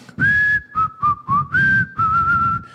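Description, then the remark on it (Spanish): A person whistles a short tune imitating the same tune their father always whistled, several clear, sustained notes, rising and falling with brief gaps between phrases, fairly loud, with no talking over it. “Pero cuando yo lo escuchaba silbar, todo estaba bien en casa. Papá siempre silbaba lo mismo.”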